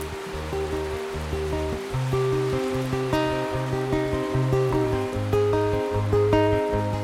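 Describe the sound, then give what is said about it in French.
A heavy downpour, an enormous rain shower at the end of a music track, hisses steadily throughout. The dense wash of rain blends with loud orchestral music, an arrangement of Ravel's Boléro, playing sustained, repeating notes in the foreground. No one speaks. “est un résumé qui se termine sous une averse de pluie énorme avec un fond de boléro de Ravel arrangé.”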